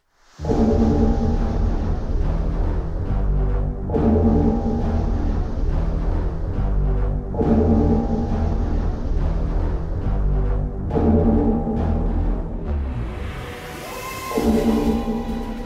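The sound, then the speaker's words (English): The cloister bell, an alarm communications device reserved for wild catastrophes and sudden calls to man the battle stations, tolls deeply and resonantly, slowly and steadily, about every three and a half seconds, each loud, rich chime ringing out over a low droning hum with no voices. “Well, it's a sort of communications device reserved for wild catastrophes and sudden calls to man the battle stations.”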